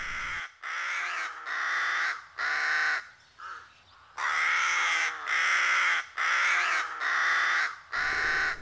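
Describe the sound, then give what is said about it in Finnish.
A rook caws loudly in a steady series of about ten harsh, raspy calls with short gaps between them, one call noticeably softer, and no voices. “Yhdyskuntia on meteliin hävitettykin, vaikka laji on rauhoitettu.”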